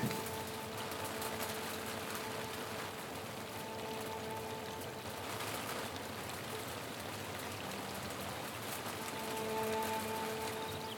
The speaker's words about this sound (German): Entspanne dich, folge der Atemmeditation und genieße den leichten Regen und Wind.